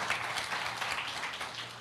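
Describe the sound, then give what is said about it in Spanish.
Audience applause for a visitor from Georgia seated in the front row: a steady, dense patter of many hands clapping together, holding an even level throughout with no voices over it and a faint low hum beneath. “Un aplauso para Carolina que nos está visitando el día de hoy.”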